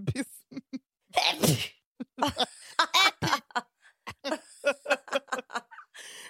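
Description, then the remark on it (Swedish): A loud, explosive sneeze bursts out near the start, surrounded by breathy laughter and short voiced chuckles that continue in quick bursts afterward. “Jag skulle spela upp nysen igen.”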